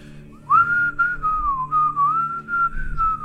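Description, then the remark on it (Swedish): A man carrying a stack of firewood between sheds whistles a melodic tune in one steady, wavering line, fairly loud, with brief breaks between phrases and faint low background noise underneath. “gå och vissla på en sång.”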